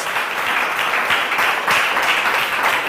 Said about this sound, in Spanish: Den otro aplauso al Señor. Hoy tenemos que llegar a esta casa de aplausos.